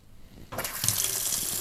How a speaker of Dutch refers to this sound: En ik heb te veel heet water in mijn koffie gedaan, denk ik.